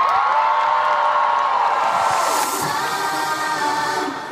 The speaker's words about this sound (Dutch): Graag enige appreciatie, misschien wat applaus.